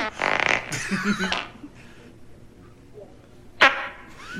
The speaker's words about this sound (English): Was that a fart? I don't know. I can taste it. I can taste it. On my tongue. Okay, I, will be honest with you. I did fart. Is that onion? Onion and onion and ketchup. It stinks.